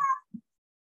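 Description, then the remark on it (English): A single short, clear cat meow, followed a moment later by a soft, low muffled sound, with no one talking. “i'm sorry about the cat”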